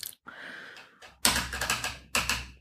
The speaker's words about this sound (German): Oh, er, er versucht gerade selber zu tippen, das, das ist doof. Selber tippen ist immer ganz doof.